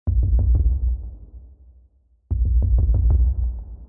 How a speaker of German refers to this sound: Das heißt, ich habe auf dem Schreibtisch rumgetrommelt, dieses du, du, du, du, du, du, du, du, du, du, war das, was mir erstmal einfiel, was ich aus Spaß auf diesem Schreibtisch ausprobiert habe. Und das hat es dann am Ende auch reingeschafft.